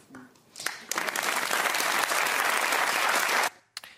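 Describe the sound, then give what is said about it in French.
An audience bursts into steady applause at a remark calling presidential candidate Éric Zemmour's case a mental, psychiatric problem, many hands clapping in a dense, sustained wash that lasts about three seconds before cutting off abruptly. “Et vous avez euh, les personnes qui applaudissent en disant c'est un problème mental, psychiatrique chez lui.”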